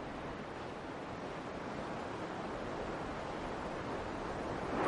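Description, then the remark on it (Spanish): A steady, continuous roar of sea surf washing along the shore at a seaside archaeological site near the Montermoso beach resort, broad and hissing with no distinct breaks between waves, with a faint touch of wind noise and no voices. “Este es un sitio arqueológico que está a orillas del mar, muy cerca del balneario de Montermoso.”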